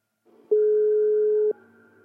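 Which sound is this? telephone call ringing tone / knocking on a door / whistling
telephone call ringing tone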